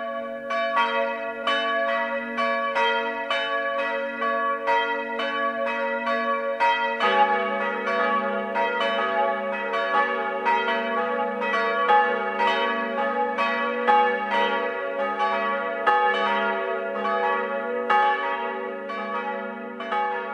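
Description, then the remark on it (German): Church bells of the parish church of St. Leonhard in Kreuth, Upper Bavaria, Germany, ring the 12 o'clock noon peal, several bells overlapping in a steady, continuous clangor with rich lingering overtones. A deeper bell joins partway through, and no voices are heard. “Das Mittagsläuten kommt heute aus Kreuth in Oberbayern.”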